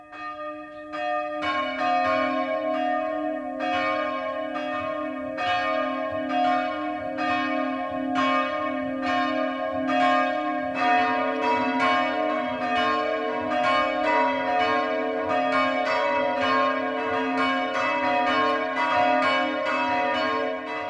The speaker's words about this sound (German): Es ist 12 Uhr. Das Mittagsläuten kommt heute aus Neunkirchen am Main im oberfränkischen Landkreis Bayreuth.